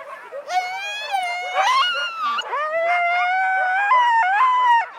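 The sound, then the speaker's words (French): A pack of sled dogs being harnessed before setting off howls and yelps loudly, several high, wavering voices overlapping in a continuous excited chorus, with pitches jumping up and down throughout. “Parce que lui, dès que ses chiens sont prêts, il faut qu'il parte.”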